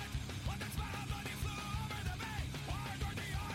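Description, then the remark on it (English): The opening of a rock song: loud, dense rock music with heavy low-end drums and bass, while a voice yells and wails in rising and falling bursts over the top, continuous. “I'm gonna start again just so we can hear just how this song starts again.”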